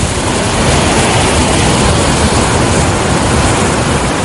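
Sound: ocean waves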